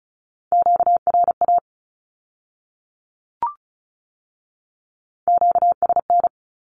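Fast Morse code Q-codes sent at 35 words per minute, beeping in a steady mid-pitched tone, in two short rapid bursts separated by a pause with a faint click, with no voices.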